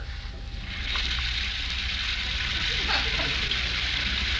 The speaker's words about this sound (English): While upstairs, we hear the sound of the shower.